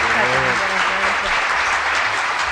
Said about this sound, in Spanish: ¿y sabes esto que merece? ¡Un aplauso!